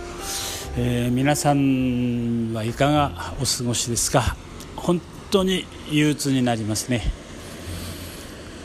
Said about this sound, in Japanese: 今あのバックにですねこれ波の音が入っているかなと思うんですけども今この三崎カフェから見るこの太平洋の眺め今薄磯海岸がすぐ隣に見えるんですけども